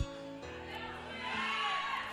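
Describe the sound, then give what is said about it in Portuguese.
A church audience gives a shout of freedom, shouting and cheering together in a loud, continuous roar of many voices, carried over sustained keyboard chords that hold steady throughout. “Dê o seu grito de liberdade, porque toda a prisão está sendo quebrada.”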